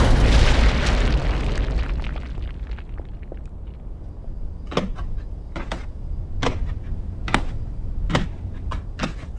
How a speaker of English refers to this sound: There was a loud clang upstairs.